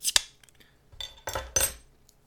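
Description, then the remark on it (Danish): Metallic clinks and scraping as a small 33 cl bottle of 5.5 percent Defender IPA beer is opened, a sharp snap at the start followed by three short, bright bursts, with no one talking. “Jeg åbner den.”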